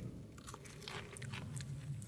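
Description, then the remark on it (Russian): A crisp crunch of teeth biting the tip off a peeled raw cucumber about as thick as a thumb, still attached to its leafy top, followed by a few wet, crackling chewing sounds, with no talking. “Его нужно очистить, хорошо очистить, не отрывая от ботвы. Затем слегка откусить”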